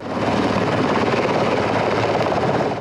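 A helicopter's engine roars, its rotor producing a steady, loud whooshing drone with a rapid rhythmic chop that holds constant throughout, with no voices. The body of a fallen gendarmerie sergeant is carried onto the helicopter after a ceremony at the Hakkari Mountain and Commando Brigade Command.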